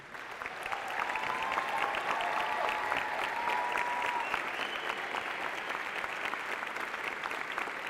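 A crowd gives a round of applause for a team, clapping steadily for several seconds, a dense, sustained patter of many hands with faint voices and a brief high whistle or cheer mixed into the applause.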